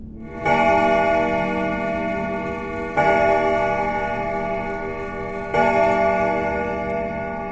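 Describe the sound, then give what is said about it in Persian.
A clock chimes three times, evenly spaced about two and a half seconds apart, each bright ringing strike lingering and fading slowly into the next, with a faint low hum underneath. “چه عجیب دوباره این صدا اومد سابقه نداشت اصلا همچین چیزی انگار این دینگ دینگ ساعت همزمان شده بود با با صدای باز شدن در خونه”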